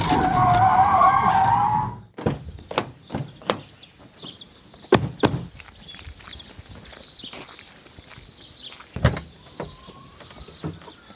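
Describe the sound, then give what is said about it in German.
A car rolls through gravel with a loud, dense crunching roar for about two seconds, then stops abruptly, followed by scattered sharp clicks, knocks and light scuffing sounds. “Fahr da vorne durch den Kies!”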